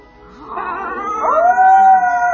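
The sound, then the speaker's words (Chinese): A voice imitates a wolf howl, as the rabbit Judy copies the wolves to slip past the wolves guarding the cliffside asylum. It is one drawn-out cry that rises in pitch, then holds a steady, clear tone and grows louder over about two seconds, with no talking. “这时候，朱迪想到了一个办法，他学着狼的样子。”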